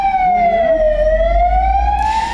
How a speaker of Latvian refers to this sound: O, teica, ka būs trauksme.